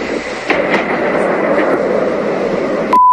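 A loud, steady engine drone roars continuously, like an attack drone passing overhead, with a few faint knocks underneath before it cuts off abruptly near the end.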